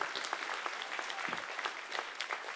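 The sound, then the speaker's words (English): An audience claps for the small group leaders, a dense patter of many hands with sharp individual slaps standing out, sustained at an even level for a few seconds with no one speaking. “Come on, let's clap our hands for the small group leaders today.”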